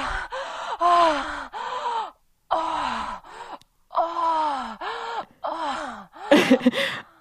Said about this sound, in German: es hört sich an, wie wenn sie gerade gekommen ist, weil es so dunkel, so ein, so ein tiefes ja, ist